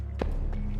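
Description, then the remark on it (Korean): Quick running footsteps thud at a steady rhythm, with several sharp impacts about a third of a second apart, moderately loud, with no voices. A man runs toward the house from far off with a sickle raised in one hand, leading the village people. “한 손에 시퍼렇게 별인 낫을 번쩍 들고 뛰어오고 있는 거야.”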